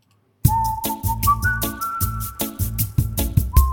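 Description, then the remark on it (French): A short, upbeat radio jingle made by a band, members of the Maison des Associations, for the show Le Son des Assos: a clear whistled melody holding long notes over a punchy, steady beat with bass, starting abruptly after a brief silence and played loud. “et on va parler ben, de tout ça pour notre petit débat juste après le petit jingle des … qui sont membres de la Maison des Associations et qui nous ont fait ce petit jingle que tout le monde adore pour le son des assos.”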